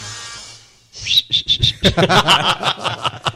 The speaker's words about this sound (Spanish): Tú sí silbas, entonces. A, ver, a ver.